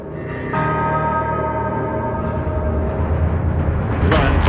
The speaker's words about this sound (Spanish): Aquí en el turno de las 12 anunciando exactamente esto con estas campanas.